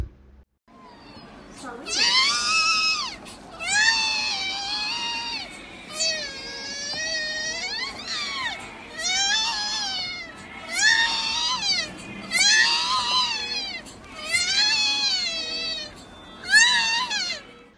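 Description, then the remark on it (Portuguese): An infant with cri-du-chat syndrome gives a shrill, high-pitched cry that sounds strikingly like a cat's mewing, repeating in about eight loud wails with short breaths between them and no talking. “Pois bem, esse choro estridente de alto volume, que se assemelha claramente ao miado ou choro de um gato, deve fazer vocês pensarem sempre na síndrome CRI do chá, ou síndrome do miado do gato.”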